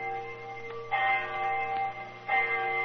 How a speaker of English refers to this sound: Our rendezvous took place right on the dot. I remember the hour was striking.